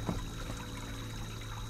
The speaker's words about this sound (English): a plashy tramp by the side of the bridge caught the sensitive ear of Ichabod